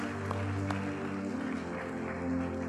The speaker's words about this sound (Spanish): Varias personas levantaron la mano. Vamos a dar un aplauso a esas personas, la valentía y a Dios por la obra de su Espíritu en sus vidas.